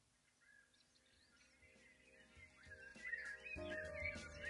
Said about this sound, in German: Ein Kuckuck? Eine, Eine Krähe. Krähe. Hörst du, was sie ruft? Brexit, Brexit.